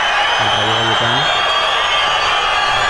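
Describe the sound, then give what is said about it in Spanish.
Football fans in a stadium applaud Falcao in a steady, dense wash of applause and noise, with a brief low voice rising out of it near the start. “le aplauden a Falcao y le sirvan al presidente.”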